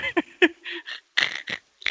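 A dog growls and snarls in a series of short, gruff bursts with brief pauses between them, no speech over it.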